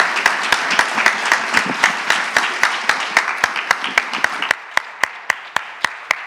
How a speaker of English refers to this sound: Let's, a round of applause to our panelists. Thank you so much.